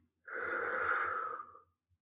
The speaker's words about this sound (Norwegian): Ta også nå test hvor mye lettere det er å puste. Så du skal få ta og puste dypt inn. Og dypt ut.